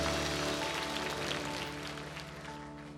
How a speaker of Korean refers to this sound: 찬양할 수 있는 백성됨을 주신 우리 하나님 앞에 감사와 영광의 박수 올려드립니다.